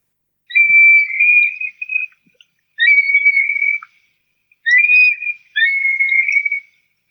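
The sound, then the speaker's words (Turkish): A recorded call of a large bird with a wingspan of about 180 cm that calls mostly while flying: four drawn-out, whistled notes at a steady high pitch, arriving in two pairs with short gaps between them. The calls ring out clear and fairly loud with no voices. “Yumurtlama döneminde sessiz olmalarına karşın genellikle uçarken ötüyorlar.”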